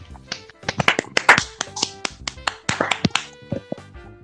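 A short round of applause from a small group, loose uneven claps bunching into quick bursts and then thinning out, with a few sharper slaps standing out over about four seconds.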